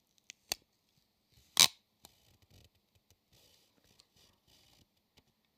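An adhesive tape dispenser on a desk in use: a couple of sharp clicks, then one short, loud ripping snap, followed by soft scattered rustles and ticks, with no talking.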